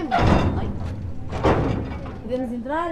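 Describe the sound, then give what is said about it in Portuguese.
A metal gate is opened by a group of volunteers crossing a fire-damaged village, with two loud clanks and thuds about a second apart, followed by people talking. “Há muito tempo que olha lá do alto para o grupo de voluntários que atravessa a aldeia e que agora lhe abre o portão.”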